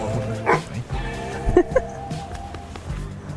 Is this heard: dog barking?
yes